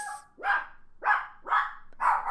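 A dog barks four times in quick, evenly spaced succession, each bark sharp, full and loud, with no talking or other sounds around it.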